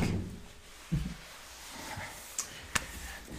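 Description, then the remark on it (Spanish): A door is pushed shut: a dull low thump, a couple of light knocks, then a sharp latch-like click near the end, all fairly soft with no talking. “y cierra la puerta, por favor.”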